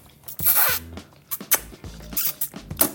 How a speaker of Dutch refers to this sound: Ja, omdat die noedels zo dikkig zijn, dat het, dat het zo lekker slurpt. En dat dat sausje er zo lekker op zit.